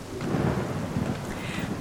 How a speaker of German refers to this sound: Doch je größer die Regentropfen, je stärker der Wind, je dunkler die Wolkenberge und je lauter der nahende Donner wurden, desto aufgeregter und auch ängstlicher wurden sie.